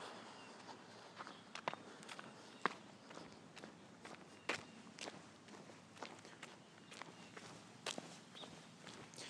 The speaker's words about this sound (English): I like the sounds my shoes make on the ground. Does that make me weird?